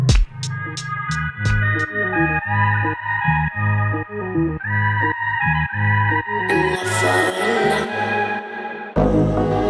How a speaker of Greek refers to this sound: πάμε να απολαύσουμε ένα τραγούδι το οποίο η αλήθεια είναι ότι το καλοκαίρι ακούστηκε ιδιαίτερα στα beach bars και όχι μόνο